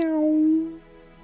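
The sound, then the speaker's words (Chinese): A single drawn-out meow imitated by a human voice while introducing the picture book Millions of Cats, a steady mid-pitched tone that holds for about half a second and then fades. No other speech is heard. “今天呀，我将给大家带来一个美国史上首部真正的绘本，名字叫做《一百万只猫》。喵。”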